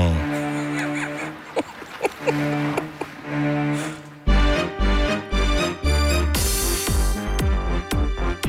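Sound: children's song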